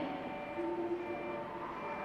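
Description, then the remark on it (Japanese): The express train Hamanasu, bound for Aomori, rolls slowly into platform 5 at Sapporo Station, a steady rumble layered with sustained high metallic whining tones, constant in loudness throughout, with no voices. “急行列車「はまなす」の入線シーン。”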